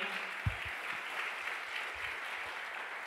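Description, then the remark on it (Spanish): A large crowd claps loudly and steadily, a dense wash of applause filling the space throughout, with no voices standing out. “¿Cuánto le da un aplauso fuerte?”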